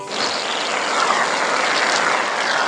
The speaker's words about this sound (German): aus Versehen auf eine Dose mit Sprühsahne gedrückt. Jetzt trägt er einen Bart aus Sahne.